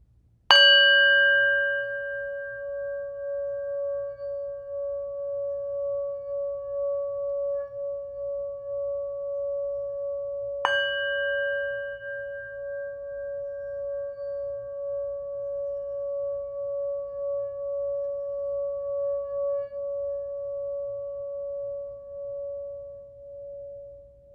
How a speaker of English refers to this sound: So I'm going to use this bowl with the sound to give you a little separation from what we just experienced so that we can move into some visualization together.